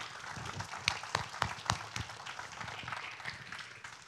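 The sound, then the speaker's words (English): An audience claps its hands to thank their mothers: a soft, steady patter of many hands with a few sharper, louder claps standing out, over a faint low murmur of voices. “Um, if, you, if you will, let's give our moms a hand clap and just say thank you for what you're doing.”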